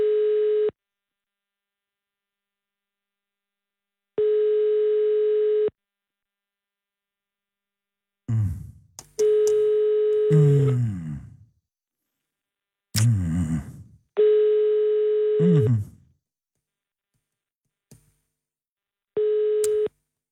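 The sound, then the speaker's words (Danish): Telephone ringback tone while calling Hans Christian Skibby's mobile phone: a steady mid-pitched beep, about a second long, repeating five times at regular intervals with silence between, while bursts of low rumbling noise overlap the middle tones. “Gud ja, ham skal jeg også ringe til.”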